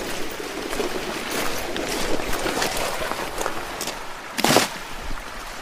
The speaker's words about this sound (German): So, jetzt haben wir das Netz ins Wasser geschmissen.